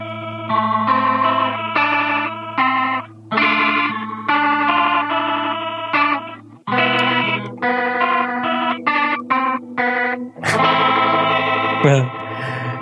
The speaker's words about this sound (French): C'était amusant parce qu'avec cette, cabine euh, Leslie justement en mode vibrato rapide, je, me suis rendu compte que le son c'était vraiment euh